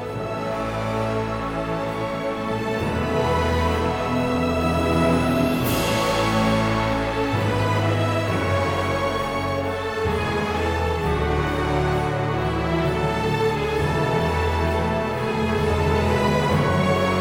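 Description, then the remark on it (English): A loud, steady train rumbles past on a nearby rail corridor, its droning tones filling the whole recording, while a pine siskin's calls and buzzy song come through faintly over the noise. “Even though it might be a little noisy, maybe I will throw on the end of this episode the pine siskin calling and singing during the uh, train passing by.”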